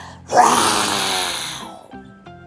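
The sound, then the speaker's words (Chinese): A person lets out a single loud, angry roar imitating a tiger in a children's story, a raspy sustained bellow lasting over a second before cutting off, followed by a few faint tonal notes. “这个时候，老虎妹妹她来了，她说：“当我生气的时候，我就会放声大吼。”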